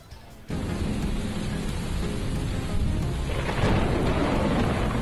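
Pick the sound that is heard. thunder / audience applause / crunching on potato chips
thunder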